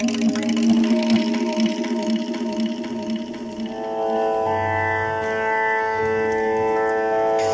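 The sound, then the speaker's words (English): A steady, sustained musical drone holds its pitch throughout, layered with rich harmonic overtones; after a few seconds a low hum swells beneath it and the tone grows fuller and brighter. “I would say that a drone is a sustained note or sound.”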